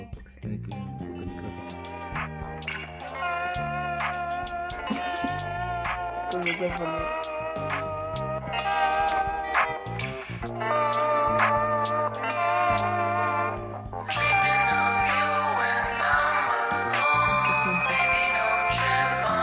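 A song plays steadily at moderate volume, layered instruments with a melodic line carried throughout, swelling into a brighter, fuller passage near the end.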